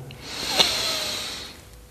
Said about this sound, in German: und während du ein wenig mehr im Hier und Jetzt ankommst, lade ich dich ein, mit mir zusammen und der ganzen Gemeinschaft einen tiefen Atemzug zu nehmen. Und beim Ausatmen darfst du deine Augen schließen. Tiefen Atemzug, wir atmen ein.